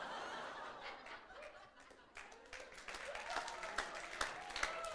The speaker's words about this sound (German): Ich weiß nicht, warum ihr klatscht.